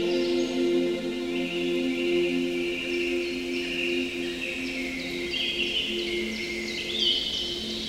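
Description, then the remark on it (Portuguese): Soft birdsong on a calm morning drifts through the whole stretch, scattered chirps and trills layered over a steady low humming drone that never changes. “ouvimos os cantos dos pássaros nesta calma manhã.”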